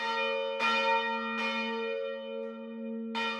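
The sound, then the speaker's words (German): A large church bell rings out in slow, heavy strokes, three strikes about a second apart, each blooming with rich overtones while a deep humming tone lingers steadily between them. “Und Glocken haben eben auch einen mitunter mystischen Klang, der auch nicht immer zu erklären ist.”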